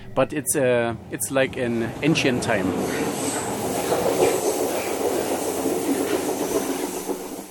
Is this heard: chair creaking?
no